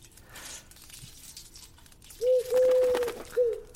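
A pigeon coos in three soft, low notes, a short one, then a longer drawn-out coo, then another brief one, over a faint rustling background.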